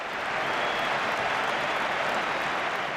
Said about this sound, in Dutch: En er komt een applaus weer. Even stil zijn.